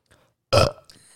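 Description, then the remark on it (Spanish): A single loud, deliberately self-induced burp lasting about a quarter second, forced out in one rough, gravelly burst, followed by a brief faint trailing noise and quiet. “no, pero sí puedo provocarme eructos, ¿no?”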